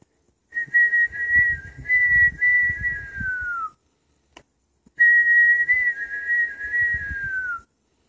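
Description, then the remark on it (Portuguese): A person whistles two long, steady, bird-like phrases, each gently trailing downward at the end, separated by a short pause with a faint click, over a low background rumble. “Naquele sonho que eu estava a sonhar, só, o passarinho só fazia assobiar.”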